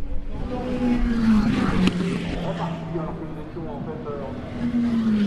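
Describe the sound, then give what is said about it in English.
Race car engines roar steadily at Le Mans, a loud, continuous drone whose whining pitch slides down and then climbs again as cars pass, layered over a dense wash of track noise. “I, I adore the sound of Le Mans.”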